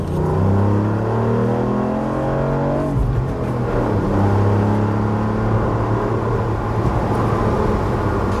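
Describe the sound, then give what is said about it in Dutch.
A tuned Ford Puma engine, with a heavily modified chassis and engine work, revs hard, its pitch climbing steadily for a few seconds, then dropping sharply before building again through several more loud revs, with no talking. “Nee, het onderstel is echt flink aangepakt. En natuurlijk is er ook motorisch nogal het een en ander gebeurd.”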